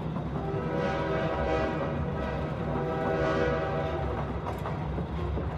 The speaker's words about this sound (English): The rest of the train ride basically goes like this